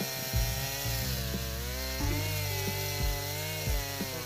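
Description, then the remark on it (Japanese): A chainsaw runs continuously with a buzzing engine drone, revving up in short bursts roughly once a second, fairly loud, with no one talking. “なんかチェーンソーの音聞こえる”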